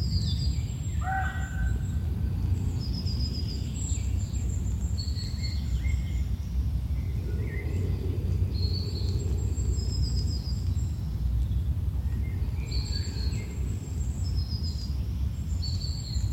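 Birds chirp and twitter throughout a forest setting, with short high calls scattered across the scene over a steady low rumble of ambience; no voices are present.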